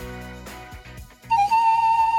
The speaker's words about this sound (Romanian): Hai să mai dăm un, uh, un fluierat și uh, să vorbim pe aia cu un alt ascultător.